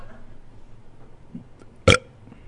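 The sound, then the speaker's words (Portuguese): A single short, loud burp bursts out near the end, preceded by a stretch of quiet, murmuring background noise. “Você não é arrota melhor que eu.”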